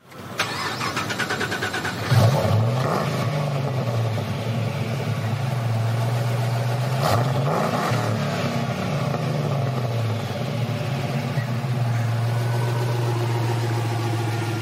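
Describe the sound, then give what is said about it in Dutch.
A Land Rover Defender engine cranks and starts up, revs a couple of times with rising and falling pitch, then settles into a loud, steady idle with no one talking. “als je dit hoort, dan is niet het eerste waar je aan denkt Land Rover Defender.”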